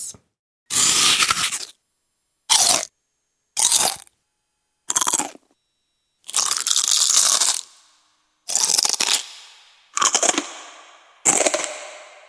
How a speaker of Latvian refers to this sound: oh, tā kā liekas, ka tas, tas bija tad, kad kāds ēd čipšus.